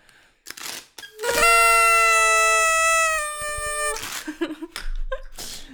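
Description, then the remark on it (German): A small toy horn, sounded as a spoiler alarm, blares one long, bright, buzzy honk lasting about two and a half seconds, loud, with brief noisy bursts before and after it. “Das war der Spoiler-Alarm. Tröd, tröd, tröd.”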